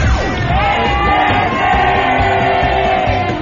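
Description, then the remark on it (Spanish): A large crowd shouts the traditional 'grito Godínez' together at the Ángel de la Independencia in Mexico City, a sustained, loud group yell in which many voices blend into one drawn-out roar that holds steady for several seconds. “Queremos que te unas al tradicional grito Godínez desde el Ángel de la Independencia”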